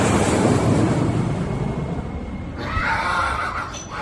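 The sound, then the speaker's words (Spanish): A female donkey brays in a harsh, drawn-out call toward the end, rising out of a steady rushing, wind-like noise that fills the whole clip; no one speaks. “¡Se te quedó la burra!”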